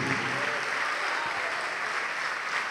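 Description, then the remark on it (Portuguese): A church audience applauds the name of Jesus steadily as more people come forward, a dense, even wash of many hands clapping at constant loudness for the whole stretch, with no single claps standing out. “E vamos aplaudir mais, porque está chegando mais gente.”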